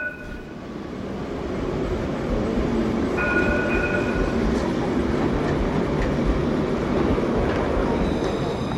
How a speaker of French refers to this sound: François Mauriac parle beaucoup du, du tramway pour Talence. Oui, oui, c'est l'ancien tramway. C'est celui que j'ai connu moi-même quand j'étais enfant c'est le tramway euh, qui sillonnait effectivement tout Bordeaux d'une manière beaucoup plus dense